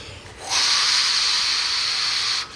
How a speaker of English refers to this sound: before a nap or at night, uh, we close the blinds, turn off the lights, and we turn on the sound machine. Obviously, it's not as high tech as AirPods, but the principle is the same. Like the sound machine, the sound machine plays this white noise,